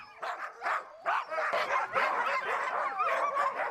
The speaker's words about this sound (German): Denn die kleinen Kraftpakete haben gerade nur ein Ziel. Wenn wir sie einschirren, springen und bellen die Hunde, weil sie los wollen. Auch wenn sie unterwegs anhalten, geht das Bellen wieder los, weil sie weiter wollen.